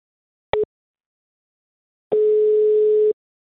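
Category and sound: signal or alarm, telephone call ringing tone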